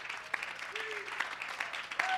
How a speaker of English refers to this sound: Give the Lord a real good hand and clap of praise.